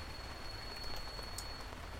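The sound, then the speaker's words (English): Steady rain falls in a dense, even patter, a continuous wash of droplets hitting surfaces with no voices, only a faint high tone in the background. “After that, it started to rain.”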